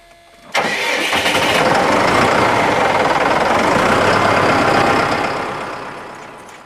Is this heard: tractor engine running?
yes